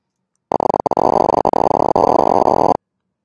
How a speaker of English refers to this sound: So you can hear the neurons. Each time you hear a little popping sound, that's the actual firing of a single neuron in a primate decision making area.